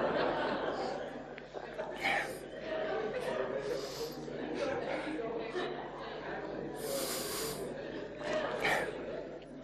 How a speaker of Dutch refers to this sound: Ik, ik neem een slokje water hoor.